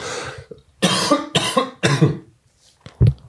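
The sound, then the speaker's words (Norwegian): A short series of harsh coughs and throat-clearing bursts from a throat irritated by lots of talking, fairly loud, with brief pauses between them and a final rough clearing at the end. “ja, litt rusk i halsen der må vi tåle når det blir så mye prating, så må må nå liksom få litt rusk i halsen,”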